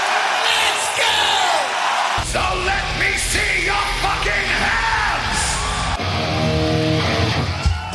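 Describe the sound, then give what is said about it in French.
A loud concert crowd at Hellfest yells and cheers continuously, with many voices whooping and shouting together over a booming low rumble from the stage, the roar sustained and dense throughout. “Alors donc le Hellfest et les concerts, et eh ben justement, on va écouter un peu de concert.”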